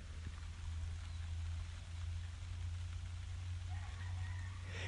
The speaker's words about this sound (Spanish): Eh, se escucha un poco de lluvia y a lo lejos los gallitos.